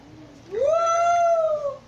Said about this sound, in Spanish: Hermano, es un lobo, pues. un perrito, mira.